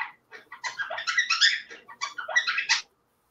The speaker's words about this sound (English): I do apologize. These birds are very excited.